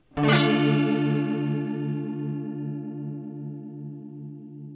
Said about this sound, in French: Le chorus, qui additionne au son original le même son retardé entre 20 et 50 millisecondes.